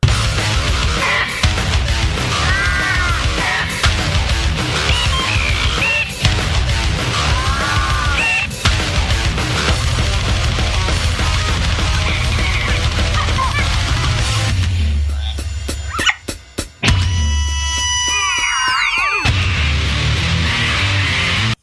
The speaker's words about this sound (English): I gotta get it to this parrot. It sounds like he's doing a bunch of different animal voices. I feel like I'm out in the jungle, you know?